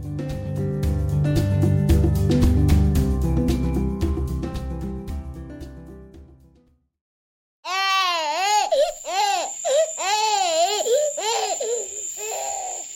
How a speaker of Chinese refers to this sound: 有个小婴儿被一位头发白苍苍的老奶奶捧在手里，哭啊哭的，好像永远没有停止的那天。